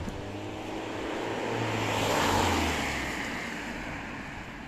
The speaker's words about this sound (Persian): یکم دیگه شما صدای صبح گوش کنید یه ماشینی داره با, با سرعت تمام داره میاد بازار خراب کرد صدای ماشین هم گوش کنید